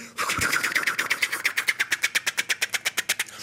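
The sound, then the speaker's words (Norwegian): A voice imitates a helicopter with a rapid, steady chopping of breathy pulses that grow more distinct and slightly quicker over a few seconds. It is fairly loud, with no other talking. “Hvilke lyder jeg kan lage? Det er alt fra, fra helikopter”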